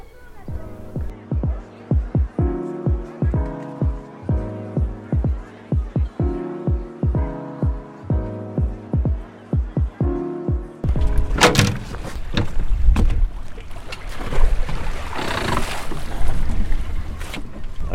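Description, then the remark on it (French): A small fishing boat's motor chugs in a steady, throbbing rhythm, then throttles up into a louder roar with rushing water and wind noise as it casts off and heads out to sea off Sarzeau for a fishing trip. “Et aujourd'hui, je le suis lors d'une de ses pêches en mer au large de Sarzeau.”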